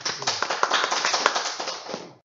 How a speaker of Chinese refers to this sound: 我想真的要谢谢老师今天的一个费心的准备。我们今天谢谢老师，掌声， 谢谢。